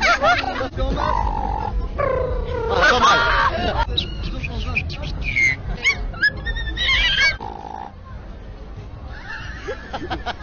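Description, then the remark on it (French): A person vocally imitates a cat with a run of wavering, sliding meow-like yowls and growls, loud, while other people talk and react around it; the sound is made for another person to try to repeat. “Je te fais un son, t'essayes de le refaire, ok Vas-y. Moi j'en ai un chat.”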